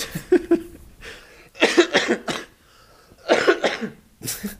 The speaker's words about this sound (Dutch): Ik voel weer een beetje een aandrang tot hoesten, maar dan probeer ik hem in te houden. Maar dan kan ik eigenlijk niet praten.